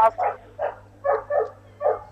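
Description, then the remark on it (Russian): A dog barks about five times in quick, uneven bursts, moderately loud, with a low steady hum running underneath. “О, собака загавкала.”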